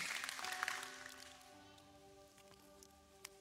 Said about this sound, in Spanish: Si lo crees conmigo, vamos, dale un fuerte aplauso a Dios.